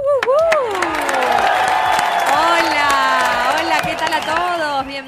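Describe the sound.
An audience on the show Próxima Estación Artelandia claps and cheers loudly and steadily as a guest is introduced, with high whoops and shouting voices rising over a dense wash of applause that holds for several seconds before easing slightly at the end.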